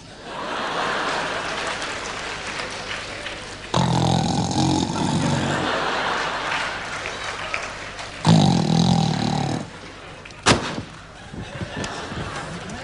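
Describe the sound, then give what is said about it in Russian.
Two long, rough snores from a woman dozing off rattle a few seconds apart over a steady noisy background, then a single sharp click stands out near the end. “Я что, закимарила?”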